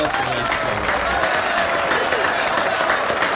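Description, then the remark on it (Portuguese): A steady burst of applause from a crowd, dense, continuous clapping at an even loudness throughout, with some faint voices mixed in underneath. “Uma salva de palmas”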